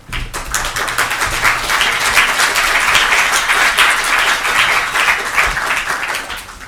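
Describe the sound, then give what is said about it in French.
Sustained audience applause for the speakers at a debate, a dense crackle of many hands clapping at a steady loud level for several seconds, with no one speaking over it. “Et donc merci euh, à, je dirais, à nos intervenants que je vous invite à applaudir chaleureusement.”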